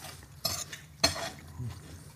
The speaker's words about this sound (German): Und das Schmatzen und so, das nehmen wir alles mit oder schneiden wir das raus? Ja, nehmen wir raus. Ich glaube, das hört sich nicht so gut an, ne?